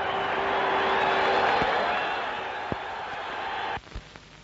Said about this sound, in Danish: Skyder, og bolden havner i det svenske mål hvor den svenske målmand til syneladende er godt gal i hovedet. Men de danske tilskuere er jublende glade og henrygte.